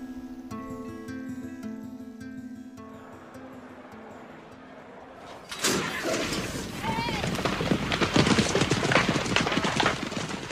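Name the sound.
horse hooves galloping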